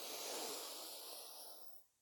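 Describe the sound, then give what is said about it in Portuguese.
A long, deep breath drawn in through the nose during a breathing exercise, a steady airy hiss lasting nearly two seconds before tapering off, fairly quiet with no talking. “Puxa o ar pelo, pelo nariz, solta pela boca em três tempos, tá?”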